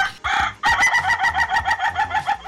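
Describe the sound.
A rooster crows loudly: a brief opening note, then a long, bright, wavering call pulsing rhythmically until it breaks off, with no talking.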